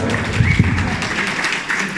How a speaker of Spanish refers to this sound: Fuerte el aplauso.